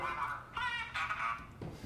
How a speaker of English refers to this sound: Uh, a duck.